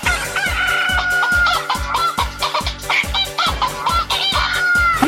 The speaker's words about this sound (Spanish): Esas son gallinas.